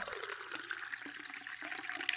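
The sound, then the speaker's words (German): Yellow Muscatella wine splashes and gurgles steadily into a glass during a virtual New Year's Eve wine tasting, a continuous bright liquid trickle with small bubbling pops, moderately loud and with no voices. “jetzt haben wir den ersten Wein im Glas, mhm.”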